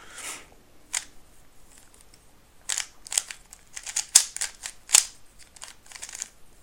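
A Chinese-made speed cube is twisted in quick bursts of crisp plastic clicks and clacks, irregular and fast, with a few sharper snaps standing out, and no talking.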